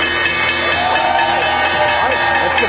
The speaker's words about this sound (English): the opening bell, S&P 500 at the CNBC Real-Time Exchange at the Big Board, Becton Dickinson and Company.